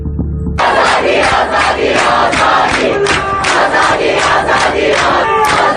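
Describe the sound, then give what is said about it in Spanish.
A large protest crowd chants in unison outdoors, loud and rhythmic, with repeated shouted phrases rising and falling in steady waves across a public square in Iran. “Y dice que es el sonido de algunas de esas protestas en las plazas de Irán”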